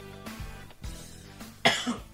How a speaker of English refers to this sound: He's still coughing. well, I wish you didn't do that because the cough, the cough came in between.